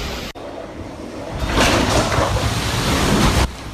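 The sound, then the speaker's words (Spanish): A steady roar of Hurricane Ian's storm surge waves crashing forcefully against homes and businesses on the Florida peninsula, with wind-buffeted turbulence that swells louder partway through and then cuts back down near the end. No one speaks. “El mar golpeaba con fuerza las viviendas y negocios, y las embarcaciones navegaban sin nadie a bordo.”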